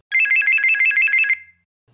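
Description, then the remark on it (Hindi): A mobile phone ringtone for an incoming call trills loudly in a rapid warbling electronic pattern for just over a second, then cuts off abruptly, leaving near silence. “तभी कविता के फोन की घंटी बज उठी”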